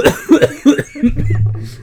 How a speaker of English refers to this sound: Dang it. Gonna make me cough.